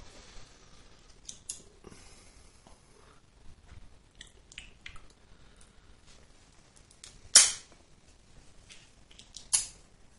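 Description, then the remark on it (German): A cigar cutter snaps shut twice as a cigar is cut again, two sharp crisp snips a couple of seconds apart, the first louder, after some faint handling clicks and rustling with no talking. “Ich schneide meine nochmal an.”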